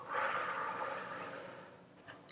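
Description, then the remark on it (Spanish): A long, slow breath let out after a deep inhale is held, a soft airy hiss through the mouth or nose that starts fuller and gradually tapers off over about two seconds, with no talking. “Mantén y suelta lento.”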